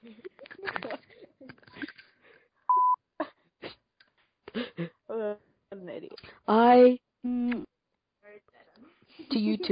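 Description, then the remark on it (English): A single short, steady censor bleep tone cuts in partway through, surrounded by animated voices talking and laughing before and after it. “no, I want to do, hey, I want to do the beep.”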